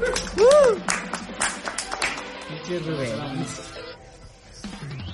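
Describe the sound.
A short burst of applause for mothers, with brisk, scattered claps over the first couple of seconds and a brief swooping tone near the start, then it thins out as people start talking.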